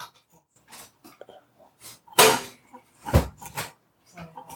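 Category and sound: animal, dog making noise nearby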